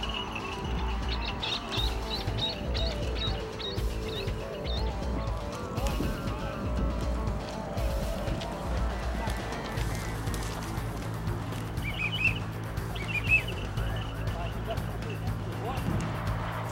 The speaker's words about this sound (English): some fast-moving birds. I don't know that Chase is going to be able to take them or not, but we're going to try again.